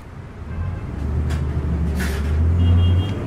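A large bus engine rumbles low, its drone growing louder and rising in pitch as the bus starts to drive off, with a brief hiss of air partway through.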